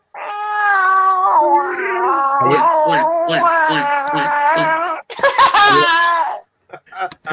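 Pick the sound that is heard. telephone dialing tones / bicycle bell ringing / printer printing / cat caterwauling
cat caterwauling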